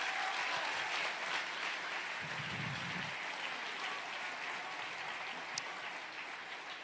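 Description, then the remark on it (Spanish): An audience gives an applause to the Lord, applauding steadily, a dense wash of many hands clapping at an even level throughout, with a brief low murmur partway through and no clear speech. “Yo quiero un aplauso al Señor por la gente.”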